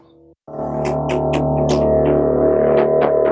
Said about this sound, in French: en fait, c'est un piano. C'est un sample de piano. Ok. il est traité de telle manière, il est trituré dans tous les sens par le, synthétiseur, qu'à la fin, on en, il en résulte ça.